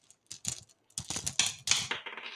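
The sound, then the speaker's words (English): Dice rattle and clatter together in quick bursts of sharp, bright clicks, moderately loud, with short pauses between handfuls and no one speaking. “Here's some dice ASMR.”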